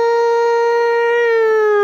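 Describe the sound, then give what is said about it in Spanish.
A loud, steady siren tone with a strong harmonic stack, holding a sustained wail that dips slightly in pitch toward the end, heard alone without any talking. “Ya ah, se me olvidó agregarle las, las, sirenas.”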